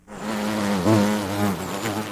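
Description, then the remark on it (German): A steady, droning hum of a large bee swarm, continuous, with the pitch wavering slightly as the buzzing swells and settles over about two seconds, as the swarm moves slowly toward a window and floats out through it. “Noch ehe sie sich wundern konnten, was mit der Schlange geschehen war und woher diese kam, sahen sie einen großen Bienenschwarm, der sich langsam auf ein Fenster zubewegte und dann langsam durch das Fenster nach draußen schwebte.”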